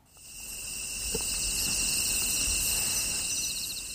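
crickets chirping

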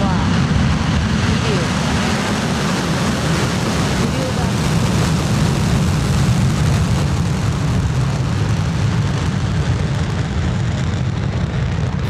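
rocket launch engine roar

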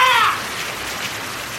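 rain falling

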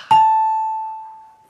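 ding-dong-dang correct answer chime

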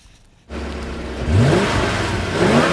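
car engine idling

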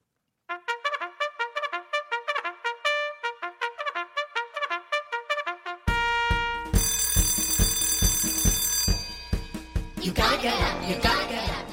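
bell ringing

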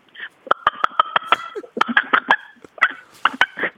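chicken clucking

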